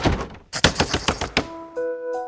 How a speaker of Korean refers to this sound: 문이 쾅 닫히고 우당탕탕탕탕 뛰어가는 발소리가 들리더라고요. 창고방 청년이었습니다.